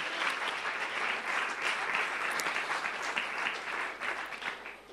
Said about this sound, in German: Ich würde sagen, einen kleinen Applaus noch.